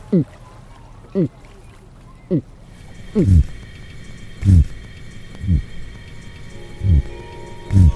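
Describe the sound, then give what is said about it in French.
A voice imitates the low-frequency buzzing that lobsters produce underwater, with short, gravelly bursts repeated about ten times at an uneven pace, fairly loud, over a faint steady hum. The imitator is a 25-year-old doctoral student studying lobsters at the European Institute of the Sea near Brest. “ça produit un son basse fréquence type bourdonnement. Euh, je peux essayer de l'imiter, c'est.”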